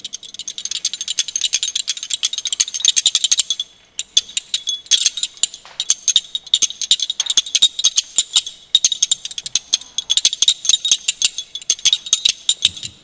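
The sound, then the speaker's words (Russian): Two river pebbles held in the hands and struck together as percussion in a fast, virtuosic rattling patter of sharp, bright clicks, played in long bursts separated by a few brief pauses. No one speaks. “А, камень о камень бьется, да?”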